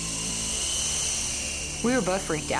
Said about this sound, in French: Le petit hélicoptère n'a pas de pile. Il est impossible de l'allumer. Soudainement, l'hélice s'est mise à tourner très très vite. En plus, les lumières clignotaient sur l'hélicoptère.